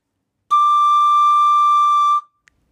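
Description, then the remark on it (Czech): A single steady note played on a metal tenor recorder, held evenly for under two seconds with a clear, bright tone, alone in silence before stopping cleanly. “Eh, ten první byl moje eh, tenorová fletna a to kovová.”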